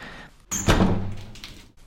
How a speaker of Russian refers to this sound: Он выпроводил меня и тотчас же заперся на ключ.